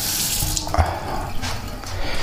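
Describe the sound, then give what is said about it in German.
Water runs steadily from a tap into an electric kettle, a constant splashing hiss with small clinks and bumps partway through, and no voices. “So ist den Wasserkocher.”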